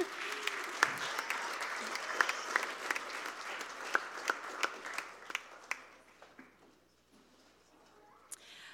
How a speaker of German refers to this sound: Und deswegen lasst uns jetzt hier unsere Kleingruppenleiter mit einem herzlichen Applaus äh, von der Bühne verabschieden.